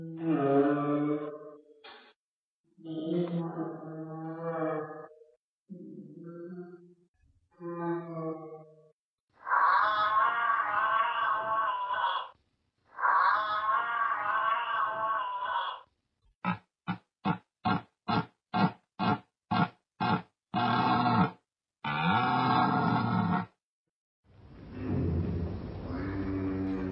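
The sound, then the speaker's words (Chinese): Giraffe calf calls: a series of bleating, calf-like moos with rich harmonics, followed by a rapid run of short clicking pulses and a final harsh, breathy snort. No talking. “这个我们说啊，呃，最开始我们是听到了一个小长颈鹿的叫声。”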